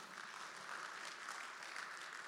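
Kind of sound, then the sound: crowd, audience clapping hands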